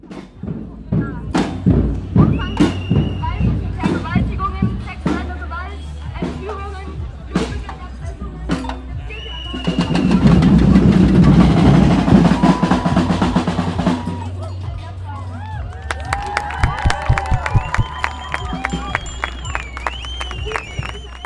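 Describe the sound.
A protest crowd drums on drums and household pots, steady loud thumping beats with metallic clanks ringing out, while a surge of cheering and chatter swells in the middle and voices mingle throughout.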